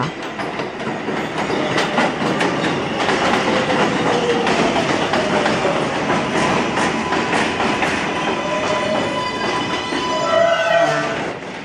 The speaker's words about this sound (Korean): 많은 사람이 타고 내리는 뉴욕 지하철역.